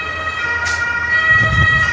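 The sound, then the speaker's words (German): An ambulance siren of the German armed forces' (Bundeswehr) rescue service wails outside, a steady high tone with harmonics, moderately loud, with low traffic rumble underneath and no talking. “Nee, Krankenwagen in diesem Fall. Rettungsdienst der Bundeswehr.”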